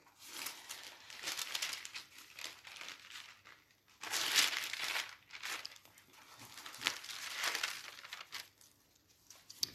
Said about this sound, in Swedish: Men vi, vi vet att eh, Paulus skriver i andra Thessalonikerbrevet någonting som är ganska uppmuntrande som jag ska läsa här nu Andra Thessalonikerbrevet ska jag försöka att bläddra fram.